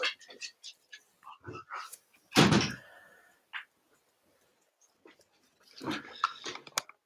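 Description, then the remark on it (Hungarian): Dogs being let outside shuffle and patter about with scattered small clicks and scrapes, then a single heavy thump of a door closing, followed by more rustling movement. “Kutyák, gyerünk kifele, kifele, kifele, kifele, kifele, kifele.”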